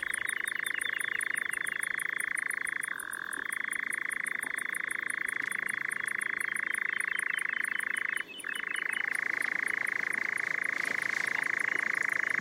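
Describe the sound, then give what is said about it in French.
A dense, unbroken chorus of frogs croaking steadily at night, loud, with a faint rhythmic high-pitched trilling of insects running above it throughout. “La plonge des grenouilles ajoute une dimension à la profondeur du soir.”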